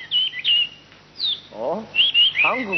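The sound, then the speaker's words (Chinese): A Chinese hwamei songbird, a treasured bird of the palace, sings bright, high warbling whistles in several quick bursts, with a man's voice speaking briefly partway through and again near the end. “那只画眉鸟是宫里的心爱之物，就连太子见了它，也总是流连忘返呐。”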